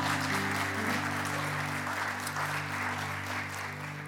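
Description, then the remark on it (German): A crowd claps steadily, dense, continuous applause for several seconds over a low, steady hum, with no voices standing out. “Ja, ich dürfte klatschen.”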